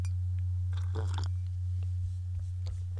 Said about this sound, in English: So I uh, take a sip of my uh, coffee there. Yeah, but without that, uh, without that, Jesus, I need more coffee.